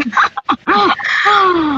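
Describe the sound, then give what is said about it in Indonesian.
A few short, rough throat-clearing coughs, followed by a longer voiced hum-like sound, with no words spoken. “jadi batuk”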